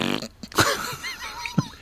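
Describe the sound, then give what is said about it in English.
A novelty fart machine, worked by Leslie Nielsen from underneath the table during a live in-studio morning show interview at radio station KQRS, gives a short, buzzy, sputtering blast, rattling at first, then breaking into a few rough bursts and a final squelch, with no talking. “Well, he's got one of those little fart machines underneath oh the oh table.”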